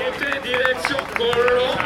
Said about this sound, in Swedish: David de la Cruz, spanjor, får mycket jubel. Det hör ni här.